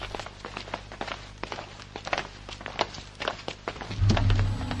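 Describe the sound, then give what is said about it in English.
A steady series of soft, thudding footsteps at an irregular walking pace, with a low hum rising briefly near the end. No one speaks. “He would climb up, and just then he heard footsteps.”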